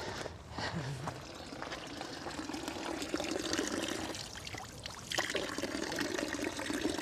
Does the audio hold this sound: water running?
yes